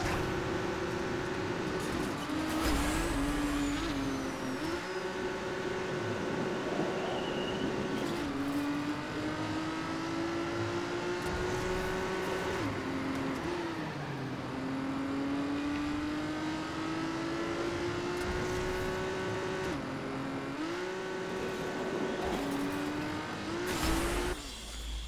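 A car engine in the racing game Trackmania whines steadily, its pitch climbing through gear after gear with brief drops at each shift, loud and continuous with no talking.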